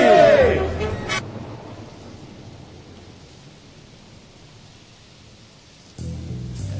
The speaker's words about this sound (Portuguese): É, amigo. Chuva. Gosto. Tá chovendo.